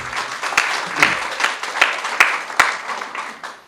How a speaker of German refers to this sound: Applaus mal für unsere Technik, ihr macht es so toll, danke.